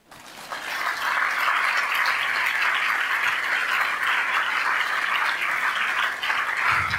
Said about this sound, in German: Sie sind dran zu klatschen.